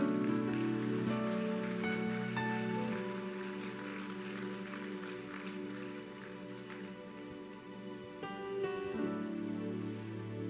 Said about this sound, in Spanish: ¿Puedes darle gloria a Dios? Dale un aplauso al Todopoderoso.